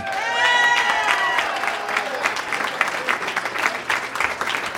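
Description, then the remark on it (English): A comedy show audience bursts into loud, steady applause for comic Jesse Egan, host of Tonight in San Diego, with high whoops and cheers rising over the clapping at the start before settling into sustained clapping. “Everyone, make it loud for Jesse Egan.”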